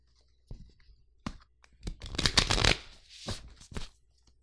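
A deck of cards being shuffled: a few sharp taps, then a dense, fluttering riffle of cards rushing together, followed by softer squaring taps. No one speaks.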